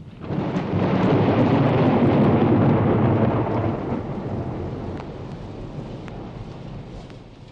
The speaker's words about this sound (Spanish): La lluvia sirve muchísimo a las plantas, a los animales y también al hombre, aunque a veces nos asuste.